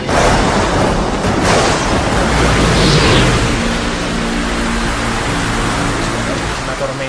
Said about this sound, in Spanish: bueno, un mar indómito.